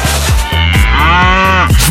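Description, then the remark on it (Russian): A cow lets out a long, loud, drawn-out moo that fills the whole moment, with a steady low thumping beat running underneath it. “Дело в том, что в Нидерландах для снятия стресса предлагают обнимать коров.”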